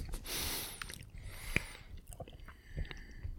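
Someone chewing food, with moist, irregular crunching and smacking clicks and one sharper snap partway through. The sounds are fairly quiet, and no one speaks.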